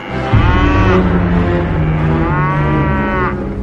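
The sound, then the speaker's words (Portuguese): Oxen stumbling at a threshing floor low in two long, deep, drawn-out calls, loud, one running into the next with no talking. “Quando chegaram ao campo de descascar cereais que pertencia a Nacon, os bois tropeçaram”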